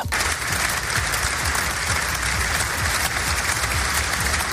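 Sustained applause from hundreds of Guardia Civil agents receiving the body of fallen agent David Pérez in front of the cathedral in Pamplona, a dense, steady wash of clapping that holds at an even, loud level for the whole stretch with no voices standing out.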